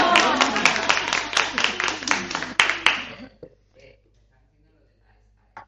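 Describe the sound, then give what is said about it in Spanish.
A small group claps for about three seconds, applauding the cook, sharp hand claps mixed with lively voices talking and laughing over them, then the applause stops abruptly and it goes quiet. “Estamos aplaudiendo la cocinera.”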